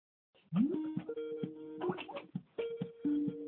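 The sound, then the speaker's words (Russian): An electronic phone ringtone for an incoming call plays a short melody of clear, steady beeping tones that step between pitches in a quick rhythm. The sound is moderately loud, and no one speaks. “Кто-то звонит.”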